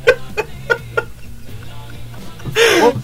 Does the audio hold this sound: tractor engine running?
no